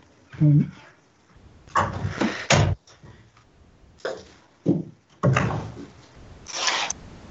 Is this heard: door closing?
yes